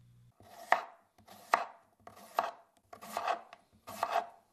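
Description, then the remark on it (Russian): Knife finely chopping onion on a board in five quick bursts, each a sharp tap trailed by a short scraping rasp, spaced roughly evenly with brief pauses between. No voices. “Сначала нарежем помидоры на небольшие дольки и мелко нашинкуем лук.”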